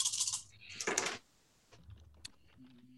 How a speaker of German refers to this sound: würfel mal, ob sie es schafft. Nimm mal drei grüne und einen gelben gegen zwei lilane.